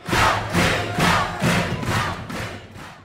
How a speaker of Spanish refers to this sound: De nuevo los allí presentes estallaron en gritos de júbilo, mientras el emperador sonreía satisfecho y acariciaba el tejido de su traje invisible.